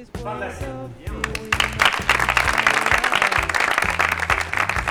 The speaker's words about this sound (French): Bah, c'est la fin, et on leur propose de venir. Euh, tous ceux qui ont participé, hop, ils viennent avec nous, euh, et puis on s'applaudit, et puis, et puis on est content, et, c'est la fin.